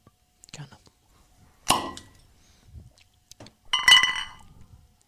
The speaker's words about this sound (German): Wollen wir darauf anstoßen?